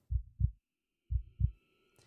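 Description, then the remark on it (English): An old man's low, muffled heartbeat thumps in two quick double beats, lub-dub pairs separated by a short pause, dull with no voices. “Now I say, there came to my ears a low, dull, quick sound, such as a watch makes when enveloped in cotton.”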